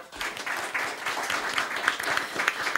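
An audience bursts into applause for the sound and technical operator, many hands clapping in a dense, steady patter that holds at a fairly even level for a few seconds, with a few sharper individual claps standing out near the end.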